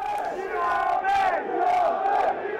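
A crowd of football fans chants in unison a chant against Arsenal. It is a sustained melodic roar of many voices rising and falling in a steady sing-song rhythm, loud and continuous throughout.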